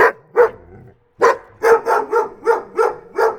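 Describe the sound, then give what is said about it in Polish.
A dog barks about eight times, loud, in a quick rhythm broken by a short pause after the first two barks. No one speaks. “A w ogóle to wróćmy do piesków, jak jesteśmy przy kościach.”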